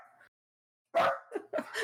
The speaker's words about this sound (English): I knew it would happen eventually. the pizza is not here. There is no need to bark. staring at the window, so I think it's the neighbor.